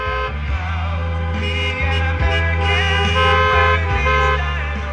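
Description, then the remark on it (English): Cars pulling out of a church parking lot after a sermon, with horns honking: several loud, sustained toots overlapping one another almost continuously, with no one talking. “And then the sermon was over, and one by one, the cars left the church.”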